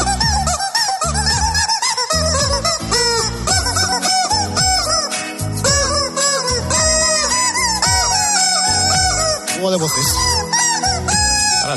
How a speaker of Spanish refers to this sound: tengo un pollo chillando en el horno, ¿no?